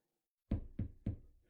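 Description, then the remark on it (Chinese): High heels click on a marble floor in a corridor, approaching: three sharp, hard taps in a quick, even stride, then a fainter fourth step. No voices, only the crisp clacks after a moment of silence. “咚咚咚的高跟鞋踩着大理石，清脆的足音在过道里由远及近。”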